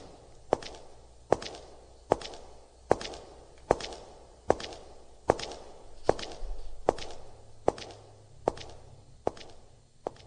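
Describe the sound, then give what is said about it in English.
A steady series of about a dozen footsteps in the dark, each a sharp, crisp knock landing at an even walking pace, with no voices and only faint background noise between steps. “Footsteps in the dark.”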